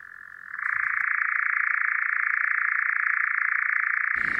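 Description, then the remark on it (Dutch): A European nightjar's churring song: a steady, rapid mechanical trill that holds one even pitch for several seconds, loud, with no voices. “Wel, dan hoorde je een mysterieuze nachtzwaluw.”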